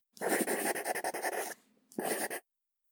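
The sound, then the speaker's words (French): A pen scratches across paper as a person signs a contract at a notary's: about a second and a half of rapid strokes, a brief pause, then a shorter flourish. No one speaks. “Je signe et je lui rends le papier en lui disant Ça va Comme ça”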